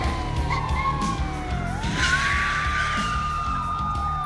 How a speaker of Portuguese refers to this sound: Nesse momento vocês escutam várias e vários carros freando bruscamente na frente do galpão.